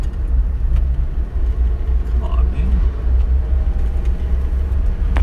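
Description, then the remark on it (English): A heavy truck rumbles as it comes down the road, its deep engine drone steady and loud throughout, while a man speaks briefly over the noise. “But uh, yeah, so wild truck coming down.”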